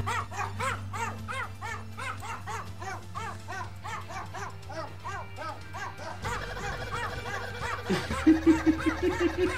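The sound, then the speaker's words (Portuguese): A dog barks in a rapid, steady string of short yappy barks over a low droning hum, the pattern shifting partway through and growing louder and busier toward the end. “É o mesmo cachorro, né, cara.”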